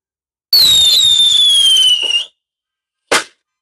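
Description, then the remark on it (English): A firework rocket shrieks upward with a loud, steadily falling whistle for nearly two seconds, then a short pause before a single sharp pop bursts out. No voices. “send out the rockets for Lupita”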